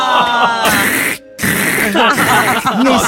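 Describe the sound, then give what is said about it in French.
Loud, dry, ASMR-style scratching of hooked fingernails raking over scabby skin during a psoriasis flare runs almost continuously with one short pause in the middle, while a voice murmurs and hums underneath. “Écoute mes ongles crochus, grattez mes croûtes purulentes.”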